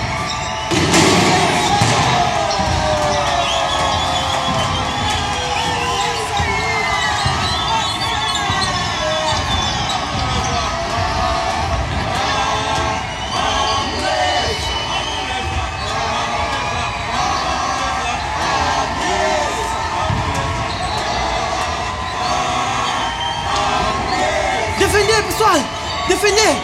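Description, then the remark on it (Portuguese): A basketball crowd cheers and chants from the stands, fans shouting songs and taunting each other, a dense steady roar of voices with shouts rising over it, while the ball thumps on the court throughout. “O público faz a sua claque das bancadas, gritando canções e gozando-se uns aos outros.”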